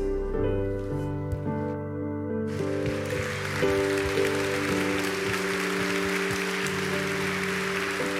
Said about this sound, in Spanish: Dale fuerte el aplauso al Rey de Reyes. Gloria a Dios.